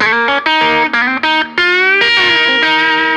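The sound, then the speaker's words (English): Electric guitar through a mini humbucker pickup plays loud, bright, twangy rock chords and short riffs with a gritty edge, several strummed hits with brief gaps between them, no voices. “Like that, you know, twangy rock kind oh, of sound that humbucker.”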